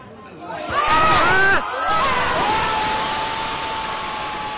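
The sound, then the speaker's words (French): A stadium crowd of Italian football fans suddenly erupts at a goal into a loud, sustained roar of screaming and cheering, with shrill shouts rising above the dense wall of noise before it settles into continuous excited clamor. “oui, oui, vous m'avez bien entendu dire c'est maintenant, juste avant le but.”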